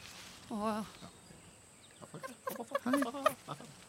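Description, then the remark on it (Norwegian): A person lets out a loud, wavering summer howl from a thicket in two bursts, a short cry and then a longer, warbling yelp with an almost squawking, hen-like quality. “Kan jeg få høre ditt, kan jeg få høre ditt sommerhyl?”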